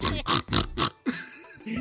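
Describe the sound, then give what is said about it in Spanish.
A person imitates a pig, giving four quick, rough, breathy snorts in a steady rhythm, followed by a lower voiced grunting sound. “Sí, mano, los snorts, ¿verdad?”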